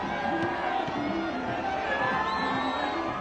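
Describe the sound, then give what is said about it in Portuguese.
A dense crowd in the streets of Doha roars and cheers without letup, celebrating Argentina winning the World Cup, many voices blending into a steady, loud wash with scattered higher shouts and whoops rising above it. “As ruas de Doha ganharam os gritos de campeão depois que o gênio da camisa 10 comandou a libertação do país.”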